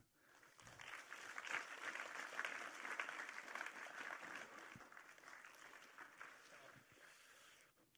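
An audience applauding steadily for several seconds to welcome a guest on stage, a dense, crackling wash of many hands clapping that swells early, holds, and then tapers slightly toward the end.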